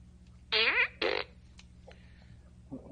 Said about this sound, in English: I got this fart gun. Uh, one of so one somebody in our chat let me know it came from Despicable Me. I had no idea.